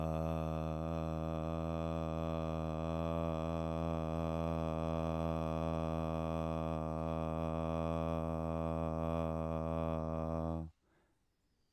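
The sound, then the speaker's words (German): A single sung note, sung while breathing into the belly, held steadily for about ten seconds, loud and rich in overtones, with even pitch and volume before it cuts off abruptly into near silence. “Man kann, glaube ich, wenn man jetzt zum Beispiel in den Bauch atmet und ich würde einen Ton singen, dann wäre das.”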